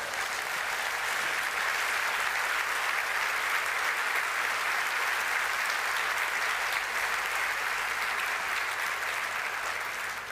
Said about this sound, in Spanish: ¿Que vos me estás aplaudiendo a mí? Nah, nah, no hagamos esos papelones, no, nah.